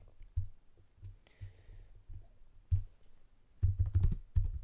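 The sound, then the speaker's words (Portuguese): Typing on a laptop keyboard with the microphone resting on the laptop, searching IMDb: irregular keystrokes tapping away, sparse at first, then a quicker, louder flurry of clacks toward the end. No one speaks. “Vocês devem estar boi a ouvir o meu teclado.”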